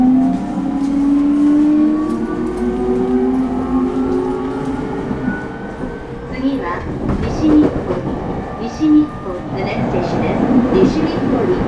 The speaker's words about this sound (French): Je suis dans une station de métro Hmm, je me demande où ce métro va m'emmener.